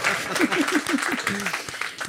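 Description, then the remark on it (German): A live audience bursts into steady, dense applause for about two seconds as the winner of a quiz is announced, with scattered voices and cheers mixed into the clapping. “Applaus.”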